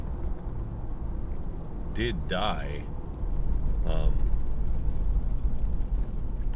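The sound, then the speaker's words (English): Steady low traffic rumble fills the background as cars on the road veer toward the speaker. It swells louder partway through as a car passes, with a person speaking briefly over it. “having a lot of cars veer toward me right now, and it's really kind of freaking me out.”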